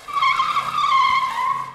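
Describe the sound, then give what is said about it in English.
Car tires squeal loudly as a car speeds off, a sustained high screech that holds steady for almost two seconds and sinks slightly in pitch, with a low engine rumble beneath. “Let's burn rubber!”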